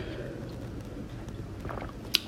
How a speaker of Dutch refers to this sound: Ik pak trouwens nog even een slokje water, want ik voel weer aankomen dat mijn stem anders wegzakt.